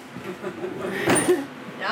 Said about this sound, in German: macht mutig die WC-Türen auf.